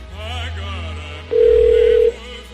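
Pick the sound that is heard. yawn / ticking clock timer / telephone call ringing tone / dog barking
telephone call ringing tone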